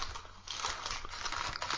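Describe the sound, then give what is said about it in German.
Continuous crinkling of a candy wrapper into a microphone, dense crackly rustling that fills the whole stretch with uneven bursts, fairly loud and with no voices. “Ähm, ich habe dann, ich habe danach mal ins Mikro knistern.”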